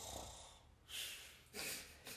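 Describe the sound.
A voice imitates the loud, choking snoring of a classmate who fell asleep and unmuted during an online class: two harsh, raspy snorting breaths about half a second apart, with no words spoken.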